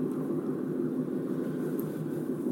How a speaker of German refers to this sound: Ich sitze gerade im Auto, man hört es wahrscheinlich. Und äh, ich lege jetzt mal das Handy so irgendwie so irgendwo hin, dass ich hoffe, dass es nicht zu so sehr bewegt ist und ich schalten kann.